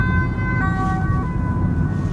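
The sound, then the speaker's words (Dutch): An ambulance siren wails with steady tonal bands, heard over loud low traffic rumble, as the vehicle passes by. “Maar dan nog, er komt een ambulance langs, dat ga je vast horen.”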